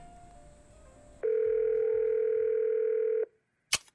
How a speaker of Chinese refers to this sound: 抵达公用电话亭后，他插进电话卡，卡片上印着学校同事的小宝宝。他拨的是花冈镜子的手机，家里的座机也许已被监听。